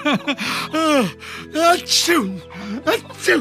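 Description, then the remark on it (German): A loud sneeze bursts out amid a series of sharp voiced gasps and breathy sounds, with a hissy noise burst near the middle. “Gesundheit.”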